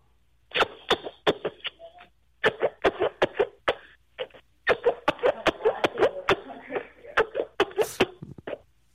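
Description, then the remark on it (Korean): A rapid string of short, squelchy three-part fart noises made with the palms of the hands, loud, popping in uneven bursts with brief pauses between clusters. “어린이집 쉐이프가 손으로 3단 방귀 낼 소리 낼 수 있습니까?”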